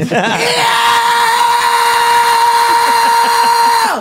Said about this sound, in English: Is that coming from your lower diaphragm? Uh, that's a fry scream, actually. So a fry from, scream? Yeah, it comes from ah. uh, certain part of my vocal cords, I engage what they call your false chords as well as my your regular chords.